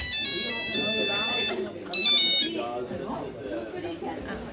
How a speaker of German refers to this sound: Der Klingelton war ja noch nicht mal Polyphon.